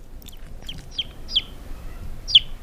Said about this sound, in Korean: 음, 병아리 소리입니다. 에? 예. 병아리 소리 들리면 봄이 온 거죠, 뭐.